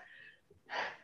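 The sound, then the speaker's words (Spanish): A single sneeze: a sharp, wheezy intake of breath, a brief pause, then a loud, breathy burst. No talking. “con nuestra esencia, perdón. Salud.”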